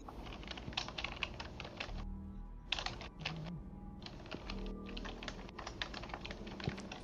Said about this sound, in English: Who's typing loudly?